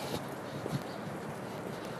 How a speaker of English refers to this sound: As, as you're walking on it, it crunches. it's cool.